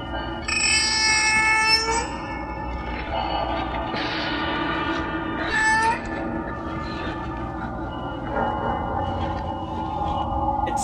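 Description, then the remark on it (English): The theme music of a horror film: a dense, unsettling drone of harsh tonal groans and screeching, wailing squeals, sustained and loud throughout with no talking, like a grinding, mournful score. “sounds like some kind of like like a sick whale or something. Or like a uh, like a cow dying or something.”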